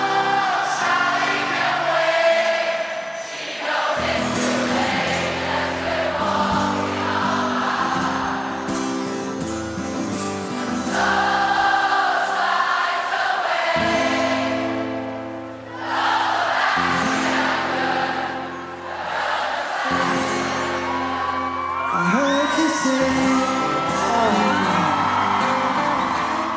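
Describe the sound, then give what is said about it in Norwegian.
A large crowd at a memorial concert in Britain sings along loudly to a live rock song, many voices blending over the band, with scattered whoops and cheers rising above the steady music. “I think we in Britain want to sing for you. This is called …”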